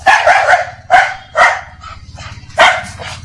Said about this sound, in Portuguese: Coitado. Coitado do cachorro, claro, né? A Tina, eu, ajudo, segundo ele, ajudando no debugging. Acho que quando vê um bug é o cachorro late.